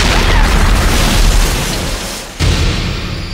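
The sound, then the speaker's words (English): A plane explodes in a huge, roaring blast, a dense, loud rumble that sustains and fades slightly, then swells again in a second burst before tailing off. No voices. “The plane! It's gonna blow up! It's gonna blow up!”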